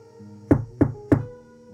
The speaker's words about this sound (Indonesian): Di sela-sela aku melambun tadi, tiba-tiba pintu kamar seperti diketuk dari luar.